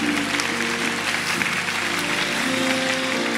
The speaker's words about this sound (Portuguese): Mas a gente vai dar um aplauso bem forte pela vida de vocês. A igreja está tão feliz. Não, mais forte, que são gente bonita, hein?